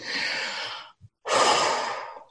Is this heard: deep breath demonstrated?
yes